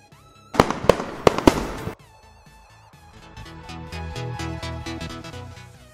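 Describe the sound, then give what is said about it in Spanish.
Fireworks burst in a quick, loud cluster of four or five sharp cracking explosions, then give way to steady music with no voices. “Si los escuchas muy de cerca, el sonido puede llegar a 150 decibeles.”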